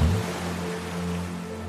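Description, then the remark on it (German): A steady rush of ocean water washes on without a break, with a low, even droning hum running underneath it. No voices are heard. “Lass dich von den Wellen in den Schlaf wiegen und von der Morgensonne wärmen.”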